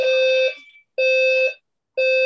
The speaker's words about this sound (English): Oh shoot. Um sorry about that. But I guess that's the uh the alarm going off at the Jazz organization where they're like, maybe we need to make some changes because, you know, it's not really working out.